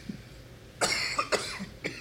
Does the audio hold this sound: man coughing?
yes